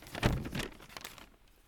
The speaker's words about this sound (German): Das war jetzt ja, Papier, nice. Papiersound.